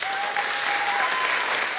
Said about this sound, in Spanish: Ahora sí. Genial. Ahora, sí. que suenan de nuevo aplausos.